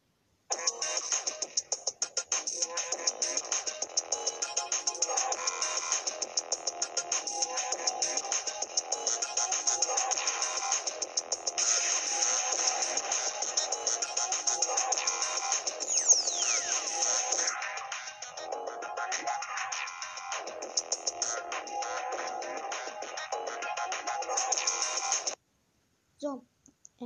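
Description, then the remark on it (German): A homemade intro jingle plays for about twenty-five seconds, a steady, dense electronic tune with a bright, buzzy high tone running throughout before it cuts off abruptly. “Ähm, das war's mit dem Intro. Ich hoffe, es hat euch gefallen. Habe ich übrigens selbst hergestellt.”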